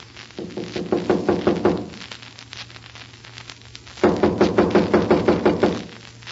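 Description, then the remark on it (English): Two bursts of rapid knocking on a wooden cabin door, each a quick series of about ten raps, separated by a couple of seconds of quiet with a low steady hum underneath. “I'll knock and find out.”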